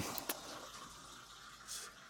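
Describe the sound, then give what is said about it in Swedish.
A faint, steady pour of Levanté Chardonnay white wine from a bottle into a glass, a soft continuous splashing hiss lasting about two seconds, with a couple of small clinks near the start and no talking. “ni hör hur ljuvligt det låter när det hälls upp här.”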